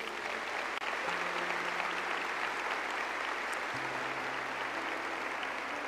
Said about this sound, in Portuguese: e eu quero agradecer demais todo esse time de voluntários. Dê um aplauso a eles, por favor.